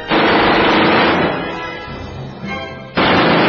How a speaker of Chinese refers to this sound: 我把枪从瞭望孔伸出去，却无法瞄准，只是对着母狼的大概位置打了一梭子子弹。